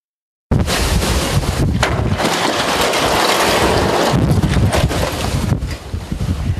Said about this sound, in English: A gas station canopy in North Carolina collapses in the punishing winds of Tropical Storm Florence. A scene repeated many times over across the Carolina coast.